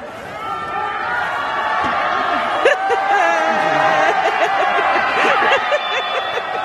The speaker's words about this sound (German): Was Sie da gehört haben, sind Menschen auf der Straße, die einen Langläufer anfeuern. Der Twitter-Account The Local Spain hat dieses Video geteilt. In den letzten Tagen ist in Spanien und vor allem in Madrid extrem viel Schnee gefallen.